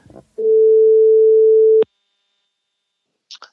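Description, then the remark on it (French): A telephone ringback tone from an outgoing call: one steady, fairly loud electronic tone lasting about a second and a half, cut off by a click, then silence with a faint noise near the end. “Donc là, je l'appelle.”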